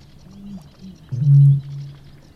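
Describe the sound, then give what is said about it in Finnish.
A Eurasian bittern's deep booming call: a few soft low gulping notes, then one loud, resonant hollow boom that fades into a lingering low hum. No talking. “Ja varmasti tänäkin keväänä ja kesänä aika moni iltaretkeilijä jää hämmästellen kuuntelemaan matalaa puhallusta.”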